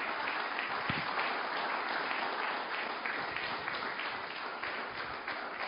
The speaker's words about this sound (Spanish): Dele palmas al que vive.